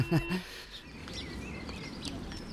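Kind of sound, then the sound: bird, small birds chirping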